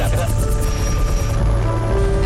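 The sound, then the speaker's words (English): An evacuation helicopter in a video, with wounded people being hustled aboard, gives a steady, loud rotor drone with a rhythmic chopping pulse, continuous through the whole moment, with faint indistinct voices mixed underneath. “More kind of like violence and wounded people being hustled onto evac uh, helicopters.”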